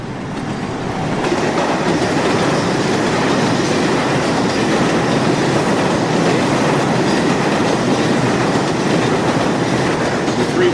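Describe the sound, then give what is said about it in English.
A loud express subway train from the Battery roars steadily through a tunnel in Manhattan, its dense rumble and rattling wheels filling the space without letup, rising quickly at the start and holding for the whole stretch. “Express from the Battery. On time to the minute, too.”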